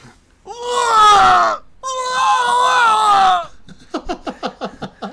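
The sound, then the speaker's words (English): A voice imitates a boy screaming in pain: two long, loud, strained wails one after the other, then a quick run of short, choppy gasping sobs trailing off. “boy next door screams out in pain.”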